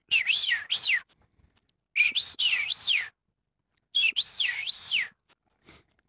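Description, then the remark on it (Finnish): A person whistles a bird-like song three times, each phrase a wavering, rising-and-falling run of notes, imitating a scarlet rosefinch. Clear with short pauses between phrases, no talking. “Ja sitten jos vetää vähän samantapaisen punavarpusen, missä on pikkasen tuommoista vihelystä.”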